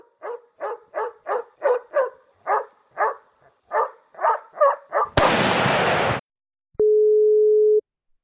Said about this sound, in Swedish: Att, eh, men vi, vi testar, vi slår en signal till han och hör om han eh, har möjlighet att vara med här.